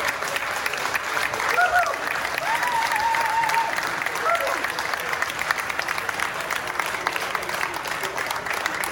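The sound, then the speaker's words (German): A large crowd of racetrack spectators claps and cheers steadily during the first lap of a race, with scattered whoops and calls rising above the dense applause, heard from within a busy grandstand for the full stretch. “Abstand und die machen da schon gut Stimmung, die Zuschauer.”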